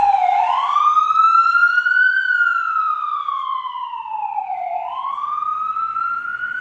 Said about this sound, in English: I'm going to wait for the, yeah, I was just going to wait for the siren to pass.